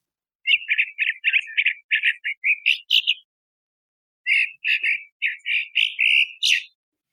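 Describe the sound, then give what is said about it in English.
A songbird sings two loose, buzzy phrases separated by a short pause, each made of rapid repeated notes that vary in shape rather than following a fixed pattern; fairly loud, with no voices. “So you could hopefully you could hear that there's really not a lot of stereotypy to that. There there is some attempt to repeat syllables, but it's kind of buzzy.”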